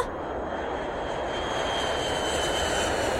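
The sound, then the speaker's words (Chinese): An airplane taking off: a dense, steady engine roar with a faint high whine on top, swelling slightly louder over a few seconds, with no voices. “小红和小粉高高兴兴地进了飞机， 起飞，出发。”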